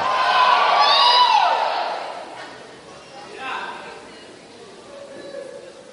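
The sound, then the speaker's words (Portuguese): An audience erupts in loud shouts of victory and stomping on the floor, a dense roar that peaks in the first seconds, then fades into scattered cries and murmurs. “Bate bem no chão, dá um grito de vitória, por favor.”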